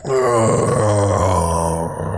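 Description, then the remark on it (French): A person voices a low, drawn-out zombie groan, imitating a zombie whose jaw has come loose as it turns toward someone: a guttural moan that wavers slightly in pitch and holds steadily loud for about two seconds, with no words. “Tu le cloques sur le bord de la tête, puis tu vois, genre, en fait, sa mâchoire décroche. Puis il fait juste. Il se tourne vers toi, puis.”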